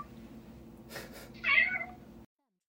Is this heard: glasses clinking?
no